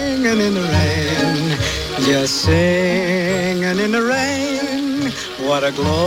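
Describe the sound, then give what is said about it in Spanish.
A song from a 1952 film musical plays, a male voice singing a smooth, sustained melody with vibrato over steady orchestral accompaniment, loud and continuous throughout. “Arrancamos con Cantando bajo la lluvia.”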